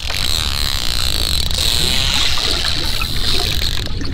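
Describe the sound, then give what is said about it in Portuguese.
A bottlenose dolphin's creaky, door-hinge-like vocalization sounds continuously over dense underwater crackle and clicking, loud throughout, with no one speaking. “É, o som que a série de TV tentou imitar é esse daqui, ó o, o, parece até o som de uma porta quando a gente abre, né? O ranger de uma porta.”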